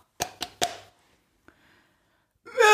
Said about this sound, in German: Sie lief die ganze Strecke und kam schließlich zu dem kleinen Häuschen und äh, klopfte an die Tür.